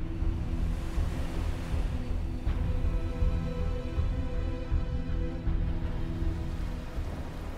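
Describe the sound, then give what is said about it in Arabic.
Heavy, torrential rain pours in a steady, dense roar over open sea with rising waves, heard from a small rowing boat, with a deep, continuous low rumble like thunder underneath. There are no voices, and the downpour stays loud and unbroken throughout. “الموج بدأ يعلى المطر كان خفيف من ساعتين لكن دلوقتي بقى سيول”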